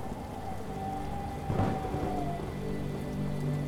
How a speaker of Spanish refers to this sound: Pero para eso está la lluvia, la lluvia que espera y acontece detrás. que apaga el fuego e impide que se extienda